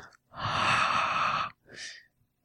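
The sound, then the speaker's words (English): A soft, breathy exhale of air, made as an ASMR sound, lasting about a second, followed by a shorter second puff of breath. No talking. “A gentle exhale of air.”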